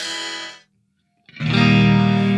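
A distorted electric guitar from a modeling amp, tuned a semitone down: one sustained chord that cuts off, a short silence, then a louder, fuller chord ringing out. No talking.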